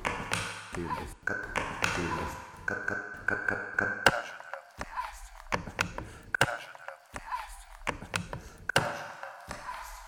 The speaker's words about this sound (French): C'est le son du recyclage de la bouteille en plastique.